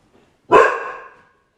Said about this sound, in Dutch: Nou, je hoort het al wel. Het is een lekker geblaf op de achtergrond. Maar ik ga het niet weghalen. Ik laat het gewoon zo zijn. En uh, eh, we gaan eventjes door. Waar was ik gebleven? Ik was even afgeleid door het geblaf van onze hond.